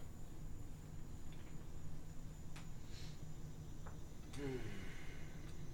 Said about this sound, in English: And the sounds of the cicadas and the wind, it disorients you.